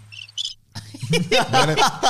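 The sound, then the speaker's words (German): Two quick bursts of cricket chirping, high and trilling, sound in near silence, then people start talking loudly over a low hum and the chirps stop. “Die, die Grillen waren gut”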